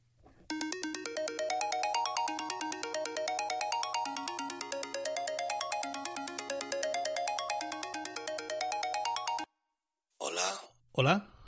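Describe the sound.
A melodic phone ringtone plays for about nine seconds, a bright repeating sequence of electronic notes over a steady low hum, then cuts off abruptly and brief speech follows.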